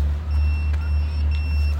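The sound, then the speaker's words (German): An e-scooter's locator, set to beep so a scooter that cannot be seen can be found, sounds a thin, high electronic tone held for over a second, fairly faint and set against a heavy low rumble of traffic or an engine. No one speaks. “Jetzt haben wir mal den Vorteil, wenn man jetzt nirgends sieht, dann können wir wirklich entweder piepsen lassen, dann hört man ihn irgendwo.”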